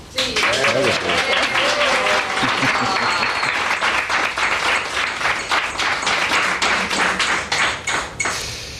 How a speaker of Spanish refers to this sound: Y además yo creo que te mereces un aplauso.